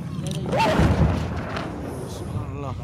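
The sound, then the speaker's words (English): Deep, rumbling booms of explosions from an airstrike bombing swell up in a broad low roar over about a second amid outdoor noise, with voices faintly audible in the background. “can hear the bombing right now.”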